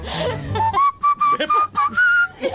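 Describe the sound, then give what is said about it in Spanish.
Someone whistles a short melodic tune, a series of clear sustained notes broken by brief pauses, fairly loud with some background murmur at the start. “A vos con solo silbar te sale, caballo”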